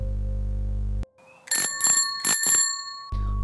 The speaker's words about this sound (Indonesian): Langkahku terhenti saat mendengar lonceng sepeda berbunyi tepat di belakangku.